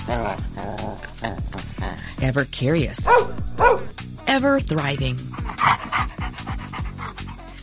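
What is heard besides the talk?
dog barking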